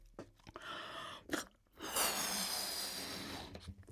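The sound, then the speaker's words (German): Breathy puffs as a person blows air into a balloon: a couple of short quick breaths, then one long, steady, hissing exhale lasting over a second. No one speaks. “Und ich habe hier zum Beispiel einen Luftballon, in den puste ich mal rein, mal gucken, ob man den dafür gebrauchen kann.”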